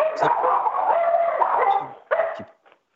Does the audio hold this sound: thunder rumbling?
no